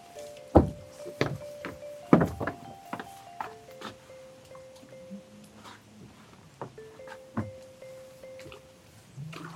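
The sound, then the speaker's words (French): People step aboard a small boat: a string of hollow, irregular thuds and knocks, with sustained creaking tones between the footfalls and no talking. “Allez, on embarque.”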